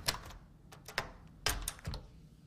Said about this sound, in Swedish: Öppna en dörr. Unlocking a door. Så liksom med nyckeln i låset.